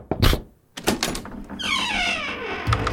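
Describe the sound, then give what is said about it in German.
A door swings open with a long, drawn-out creaking squeak that slowly falls in pitch, preceded by a couple of sharp clunks from the latch or handle. Fairly loud, with no talking. “Da ist es. Die Tür geht auf.”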